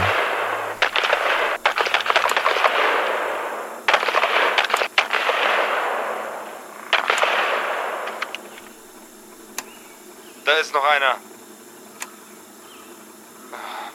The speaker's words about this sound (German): Die Stimmen werden klarer und klarer. Die Schüsse werden mehr und mehr.